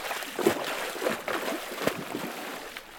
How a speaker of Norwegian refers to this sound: han rygger baklengs ut i det kalde sjøvannet. Da går jeg eh, baklengs inn i soloppgangen.